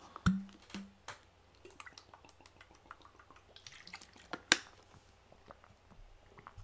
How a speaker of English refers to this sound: I'm gonna drink some water. I'm getting thirsty.